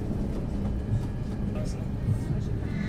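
A subway train speeds along without stopping, with a steady, loud, low rumble and rattle that holds evenly throughout, as if heard from inside the carriage.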